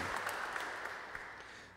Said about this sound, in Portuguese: Vamos uma grande salva de palmas saudar Nossa Senhora e também a todos aqueles que se unem conosco neste momento para rezar.